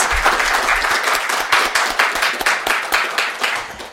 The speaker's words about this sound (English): So I'd like to thank everybody once again. Um, let's have a round of applause for all of our readers.